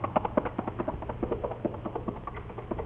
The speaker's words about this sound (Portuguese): Ele montou logo o cavalo, me botou na garupa e fez o cavalo disparar numa carreira danada.